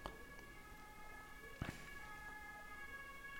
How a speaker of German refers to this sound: Oh. Oha. Martinshorn. Das ich auch mal so, so Nebengeräusche, das ist ja auch neu. Ja. War im Keller nicht so.